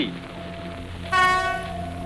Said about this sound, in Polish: Lokomotywa była jak rakieta kosmiczna. Wyrzucała z siebie dźwięki, które brzmiały jak fanfary na cześć wielkiego świata, bo to do niego, jak marzyłem, kiedyś mnie zabierze.